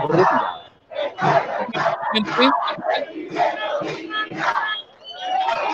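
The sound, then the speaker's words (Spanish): A large crowd shouts a rhythmic chant outdoors in the street, voices rising together in loud, steady bursts that carry on without pause, with a dog barking somewhere in the mix. “Hay un grito específico, creo que gritan.”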